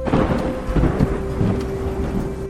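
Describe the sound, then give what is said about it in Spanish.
A thunderstorm with lightning rumbles, deep rolling thunder over a steady hiss of heavy rain, loud and continuous with no voices. “En eso la lluvia, los truenos y los relámpagos pusieron dramatismo a su desesperado accionar.”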